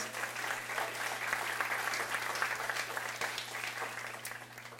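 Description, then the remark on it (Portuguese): An audience applauds for Jesus at a preacher's call, clapping steadily for about five seconds, a dense wash of many hands clapping at once, sustained and fairly loud, with a faint low hum underneath and no talking. “Dê um aplauso a Jesus que venceu o mundo.”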